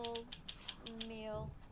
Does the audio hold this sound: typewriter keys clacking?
yes